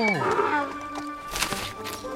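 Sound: donkey braying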